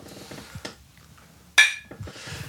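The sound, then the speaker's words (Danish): One sharp, bright clink of glasses touching in a toast, with a short ringing tone that fades quickly. Soft voices murmur before and after. “Skål.”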